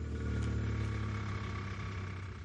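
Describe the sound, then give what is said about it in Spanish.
A car engine hums with a steady low rumble and a faint rise in pitch as Walt's car pulls away from the house, with no voices over it. “Walt arranca.”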